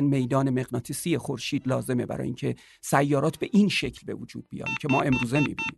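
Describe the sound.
A repeating electronic warning beep, signalling that the Nautilus space vehicle is running out of fuel, sounds in a short run of evenly spaced, high-pitched pulses near the end, playing under a man's steady speech.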